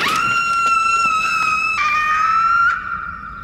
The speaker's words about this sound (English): It'd be really cool if you guys wouldn't tell people I scream like that.